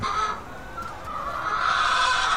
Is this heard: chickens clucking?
yes